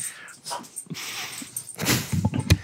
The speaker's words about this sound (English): quit breaking shit over there, man. It's your dog that's breaking shit. I can I can put her back in the cage. She's just a patsy.